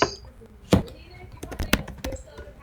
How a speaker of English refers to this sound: Typing again.